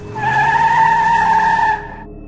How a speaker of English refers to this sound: a man driving a black pickup truck snatched her off her bicycle, put her inside the driver's side door, and took off.